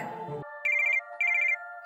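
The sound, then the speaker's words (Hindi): A phone ringtone, an inspector receiving a call from an asylum's trustee, plays two short bursts of bright, warbling electronic chirps over a steady sustained tone, clear, with no one talking. “तभी इंस्पेक्टर के पास उस एसाइलम के ट्रस्टी का फोन आता है”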